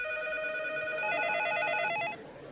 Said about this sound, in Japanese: 翌日ソニーコンピューターエンターテインメントの電話は鳴りやまなかったゲームソフト会社からプレイステーションの詳細とビジネスモデルについての問い合わせが殺到した